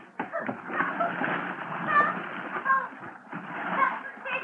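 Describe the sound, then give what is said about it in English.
Loud splashing and churning water running continuously for several seconds as a person plunges into a river in December and thrashes about, with a few brief high vocal squeals mixed in. “Oh, December is a great month for a dip into the river if you're a polo bear, but in I went.”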